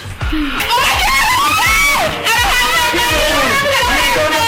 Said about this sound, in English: I know you can't tell what's going on here because there's a lot of screaming, but two clowns have popped up. Evil looking clowns that are about to nab these two women.